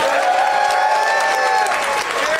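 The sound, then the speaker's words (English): Steady, dense applause from an audience at Zanies for Samm Levine fills the whole moment, loud, with scattered cheers and whoops rising over the clapping. “Let's hear once more for Samm Levine.”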